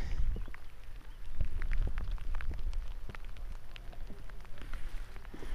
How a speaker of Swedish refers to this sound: Jag går mitt genom ett vattenområde på en stång som är halt som bara den. Om jag stannar, ni kanske hör att det regnar.